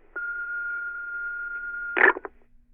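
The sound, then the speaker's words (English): A long, steady electronic answering-machine beep lasting nearly two seconds, followed immediately by a sharp clattering clunk and click as the caller hangs up the phone without saying anything, then quiet line hiss. “You know somebody called, and then they hang up the phone without saying anything.”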